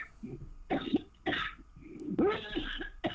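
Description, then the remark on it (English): Three harsh, wet coughing bursts come in close succession during a spoken deliverance prayer commanding familiar spirits out, each with a rough throaty rasp, with brief pauses of heavy breath between them. “you heard of familiar spirits get out cough them out cough them out cough them out go get out get out get out”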